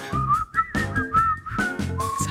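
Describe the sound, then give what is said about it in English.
A person whistles a short, wavering tune, the pitch gliding between a few notes over a soft musical backing with rhythmic low-end pulses. “hard to tell if that's me whistling or the song.”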